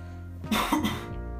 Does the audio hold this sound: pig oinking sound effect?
no